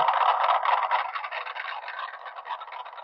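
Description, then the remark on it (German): Muffled, thin-sounding applause: a dense, steady patter of many hand claps lasting a few seconds, easing slightly toward the end, with a scratchy, filtered quality and no voices. “Also, also wie klatschen hört sich irgendwie nicht Aber an, das soll klatschen sein.”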